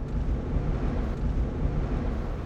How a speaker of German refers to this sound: Ich bin seit zwei Stunden mit dem Auto unterwegs, auf dem Weg nach Bad Arolsen in Nordhessen.